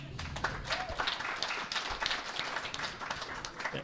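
A group of people claps steadily for a few seconds for an audience member who has a question, a dense, even patter of hand claps at moderate loudness with no voices over it.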